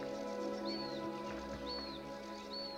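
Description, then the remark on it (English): A bird gives a short, high, slightly arching whistled call three times at steady intervals, fairly faint, over a constant low background hum. “What does that bird, for example, mean? What's the message it's bringing forward?”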